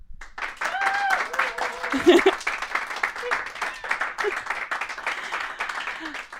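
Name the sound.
audience clapping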